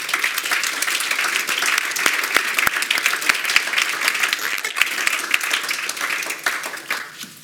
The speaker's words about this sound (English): But before we go into the election, I'd like to ask you to uh, give a hand of applause to our panelists.